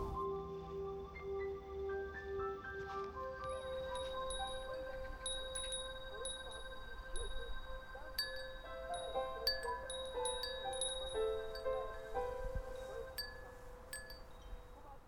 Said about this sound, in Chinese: 从树梢传来的风铃声，在园子的每个角落都能听得很清楚。它似乎有一种神奇的魔力，可以让每个人把思绪拉回到很久以前，我们再也回不去的某个片刻。